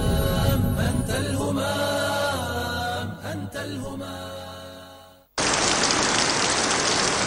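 Music plays for several seconds, then cuts off abruptly into a loud, steady hiss of rain falling, a dense, even downpour with no voices.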